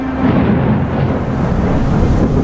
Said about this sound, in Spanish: La tarde se ha tornado gris. La gente busca refugio de la lluvia y de los rayos, truenos y centellas que caen con insistencia.